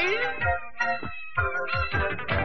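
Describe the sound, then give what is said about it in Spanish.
The Spanish-language theme song intro of the cartoon Gato Samurai (Samurai Pizza Cats) plays loud, bright layered melodic tones over a steady, punchy thumping beat, with no talking. “Y eso, esa canción, güey. No mames. Es. a ver, vamos a escucharla.”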